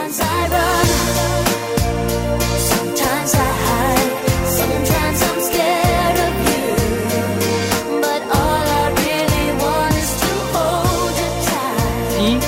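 An upbeat pop song plays steadily at full volume, with a sung melody riding over a pulsing bass line and a driving beat throughout.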